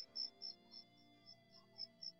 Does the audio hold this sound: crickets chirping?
yes